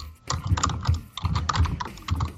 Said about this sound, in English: That is the loudest goddamn keyboard I have ever heard. Don't I know it?